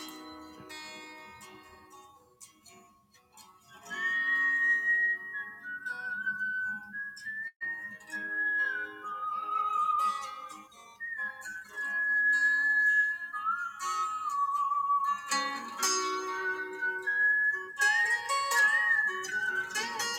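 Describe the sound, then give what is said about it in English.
A rock song plays, opening with a few seconds of guitar before a clear, loud whistled melody glides over the accompaniment, carrying the tune in long sustained notes throughout. “here is um … the song is called …”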